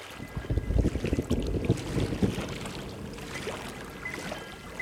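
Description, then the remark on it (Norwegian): A boat travelling from mainland Thailand out to the Phi Phi Islands across open water, with a steady engine rumble, splashing and slapping of waves against the hull, and wind buffeting the microphone throughout. “kommer fra fastlandet i Thailand med båt ut til Pipjøyene.”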